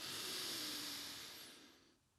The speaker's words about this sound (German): komm, macht's jetzt, jetzt. Atmen einfach tief ein und aus, dreimal.